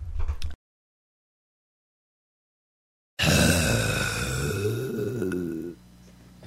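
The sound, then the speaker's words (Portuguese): A voice imitates an alien creature for a trailer with a loud, rasping growl and warbling groan lasting a couple of seconds, after a short burst and a stretch of silence. “Esse é o som do alienígena no trailer.”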